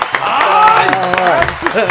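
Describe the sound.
A few people clap in quick, irregular bursts while voices talk and cheer over them at close range, the clapping loud but partly buried under the chatter.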